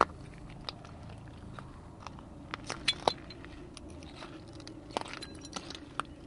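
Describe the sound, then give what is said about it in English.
Sporadic light, fairly faint clinks and clicks of glass shards being shifted by hand at Dead Horse Bay as a little bone is picked up, over a steady low outdoor rumble. “So I just picked up this uh, little bone here.”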